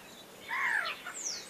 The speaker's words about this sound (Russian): Это уже не она. Нет, это уже это, не она, это, это уже враны. Это врановые да.